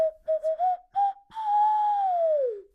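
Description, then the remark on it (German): A nose flute, a wind instrument blown with the nose, plays a few quick, breathy whistling notes, then holds one long tone that bends slowly downward at the end, clear with nothing else playing. “Platz 9, die Nasenflöte.”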